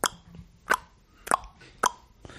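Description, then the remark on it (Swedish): A voice mimics a metronome with sharp mouth clicks, evenly spaced about every half second, five ticks in a steady rhythm, clear with no talking. “En metronom som tickar, det skulle vara skitcoolt.”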